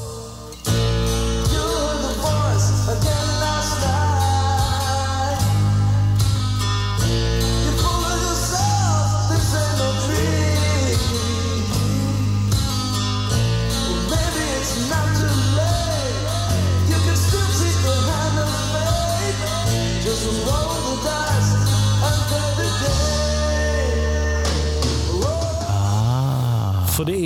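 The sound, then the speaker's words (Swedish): A loud, full-band rock track with a steady drum beat, heavy bass and melodic vocal lines, playing continuously at a strong, even level before thinning out near the end. “det från den session, det hör man. Alltså det är exakt samma liksom, trumstämning och tag.”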